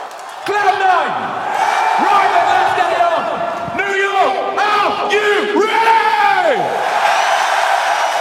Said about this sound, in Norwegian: Og det var det siste de amerikanske fansa hadde å juble for i denne semifinalen.